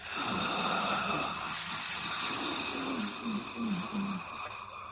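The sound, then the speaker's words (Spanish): A voice imitates an inhaled whisper: a long, breathy, hissing intake of air that runs steadily for several seconds, with a faint low voiced wavering toward the end. “Y ahí escuchas un susurro.”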